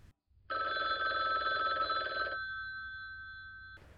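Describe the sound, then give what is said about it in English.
A single loud burst of a telephone bell ringing, clear, lasting about two seconds before its tone fades out over a quiet background hum; no one speaks. “So uh, let's go to the phone lines. Caller one.”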